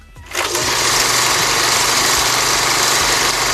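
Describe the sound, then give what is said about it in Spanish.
A steady, loud mechanical whirring like an old film projector, starting abruptly and running continuously with an even, buzzing hum and no voices. “Es así como un proyector de, de cine.”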